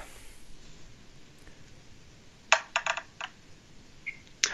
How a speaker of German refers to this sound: Also würfel nochmal.